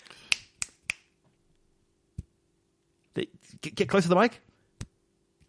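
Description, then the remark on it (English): Failed finger-snapping attempts by a man who cannot click his fingers: three quick dry snaps followed by a few scattered ones, crisp, with a person briefly speaking between them. “but for some reason he cannot click his fingers.”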